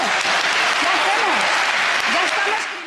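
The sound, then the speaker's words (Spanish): Steady, dense applause from a crowd fills the whole stretch at a loud, even level, with faint voices murmuring underneath before it eases off slightly at the end. “Si quieres, eh, te aplaudo yo también.”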